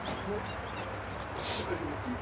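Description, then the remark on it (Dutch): Canaries chirp and twitter in bright, high bursts within a busy, crowded scene, with people talking over the steady background murmur. “nou, allemaal kanaries.”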